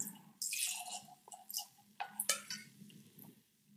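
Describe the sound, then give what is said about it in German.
A barrel-matured drink is poured from a barrel tap into a glass for tasting: a short splashing stream, then a few sharp drips and gurgles trailing off. The sound is fairly soft, with no talking. “Genau, jetzt wollen wir doch mal hier schauen, das dass wir davon was ins Glas kriegen.”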